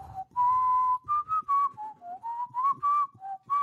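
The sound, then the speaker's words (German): A person whistles a short melody into a microphone, clear pure notes stepping up and down in a lilting phrase, with no talking. “Schön, schön, wie du ins Mikrofon pfeifen kannst.”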